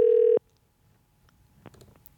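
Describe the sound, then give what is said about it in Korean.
A loud, steady telephone ringing tone sounds once in a short burst as a radio host places a call to a listener, then cuts off into near silence with only faint handling noises and soft clicks afterward. “그래 한번 통화 한번 해볼게요. 전화 한번 걸어볼게요.”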